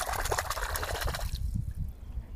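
Water laps and splashes around a stand-up paddleboard in the middle of a lake near Salzburg, Austria, in irregular little slaps and trickles, busy at first and then softer and lower after a moment, with no voices present.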